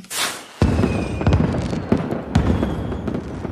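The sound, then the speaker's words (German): Rapid, dense clicking of keys on a homemade mechanical keyboard, soldered and assembled from bought parts. The clicking is fairly loud, with a few sharper, heavier key strikes standing out. A brief hiss comes just before the typing starts. “Äh, HörerInnen, die sich daran erinnern, ich habe mir äh, irgendwann Teile gekauft für eine mechanische äh, Tastatur und habe die selber zusammengelötet und gebaut.”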